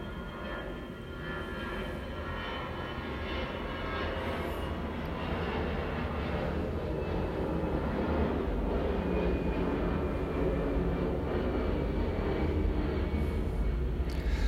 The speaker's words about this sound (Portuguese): Mais um avião, peraí.